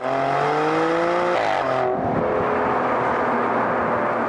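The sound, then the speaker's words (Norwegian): A Maserati Grecale Trofeo SUV with 530 horsepower, weighing just over two tonnes, revs hard and accelerates, its rising harmonic whine climbing through the gears, then settling into a loud, steady roar with no voices. “Flytter dette beistet på litt over to tonn til 100 km i timen på fire sekunder.”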